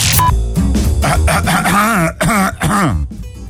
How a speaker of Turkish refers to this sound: Olayın ciddiyetini belirtmek için öksürükle açtım anonsu. Hani yaparsın ya.